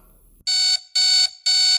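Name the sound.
repeated electronic beeping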